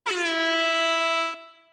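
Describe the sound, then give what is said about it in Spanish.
A single loud air horn blast in a studio, sounded as an alert, a steady harmonic blare held for over a second before cutting off and fading briefly, heard alone with no talking. “creo que tienes por ahí a mano en, el estudio, tienes una, bocina, ¿no? Eh, eh, acciónala porque quiero, quiero dar una, alerta.”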